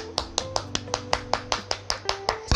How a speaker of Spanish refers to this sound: Es más, es más, espérense un momento. Yo voy a hacer un aplauso solitario